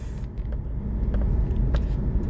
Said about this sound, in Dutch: Ik moet even opletten hoor. Ik rij ondertussen natuurlijk gewoon ook lekker in mijn autootje. Dus uh, dat moeten we wel veilig doen